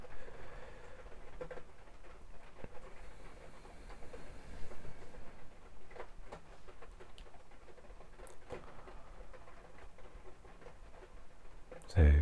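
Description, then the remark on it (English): Soft, steady rain patters outside, a continuous hiss with scattered faint taps and drips, fairly quiet, with no one speaking. “Um, perhaps another moment just to allow allow the rain if it's uh, if it's heard.”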